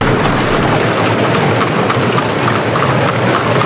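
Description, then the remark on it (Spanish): Horse-drawn carriages and pedestrians on the unpaved Paseo de la Castellana, then called Paseo de las Delicias de la Princesa, as it sounded in 1890; hoofbeats clip-clop in a dense, steady clatter with a constant rumbling wash underneath, loud and even throughout, with no voices. “El Paseo de la Castellana se llamaba entonces Paseo de las Delicias de la Princesa y así es como sonaba todo su ancho circulaban al mismo tiempo carruajes tirados por caballos y caminantes.”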